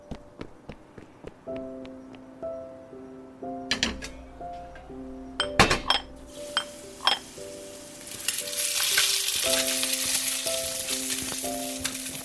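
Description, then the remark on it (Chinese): At a breakfast shop, utensils clink and tap against a griddle over a soft, steady melody, then a loud, hissing sizzle of food frying swells up and continues to the end. No one speaks. “哎，那边有一间早餐店啊，去买点东西吃吧。”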